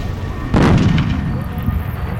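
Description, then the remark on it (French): On a stormy night, a single deep, heavy boom like an explosion erupts suddenly and rolls away with a long rumbling decay, a strange noise heard for kilometres around, above William Mac Brazel's farm, with no voices present. “Un bruit étrange, comme une explosion qui retentit à des kilomètres à la ronde.”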